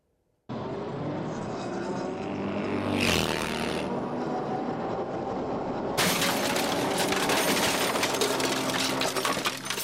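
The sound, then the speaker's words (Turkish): Steady roar of road and engine noise from a moving vehicle, broken around the third second by a loud, smeared crash as a pickup truck pins a motorcyclist and his motorcycle against a road barrier, then harsher hissing noise continues. “Buradan beni bariyere yapıştırıyor.”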